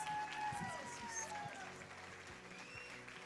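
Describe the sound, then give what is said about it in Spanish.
Steady applause from a crowd of women, many hands clapping in a dense, continuous patter for God, joined by cheering voices and high whistling tones, loud at first and easing slightly toward the end. “Vamos a darle un aplauso más fuerte, mujeres, porque Dios”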